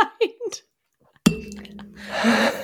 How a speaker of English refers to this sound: Sorry, guys, I keep hitting my glass again.